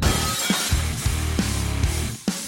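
Glass windows smash repeatedly during a riot in Stockholm, Sweden, with bottles being thrown: a loud, chaotic burst of crashes, sharp breaking impacts every half second or so over a dense layer of scattering shards and debris.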